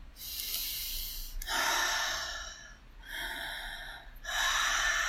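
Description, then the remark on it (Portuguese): Quick breaths drawn in and out through the mouth, a little faster than normal, four airy breathy bursts in a steady rhythm, fairly loud with no talking. “Então você vai respirando pela boca um pouco mais rápido, não muito rápido, para você não ter tontura.”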